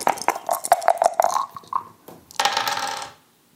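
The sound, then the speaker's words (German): Three small dice rattle and clatter onto a hard surface in a quick burst of clicks, followed by a brief skittering roll before settling into silence. “Ich höre, die wollen schon mit den Würfeln rasseln.”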